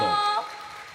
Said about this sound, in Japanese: ここでですね早速ですがそんな生徒さんたちに登場をしていただきたいと思います皆さんどうぞ大きな拍手でお迎えください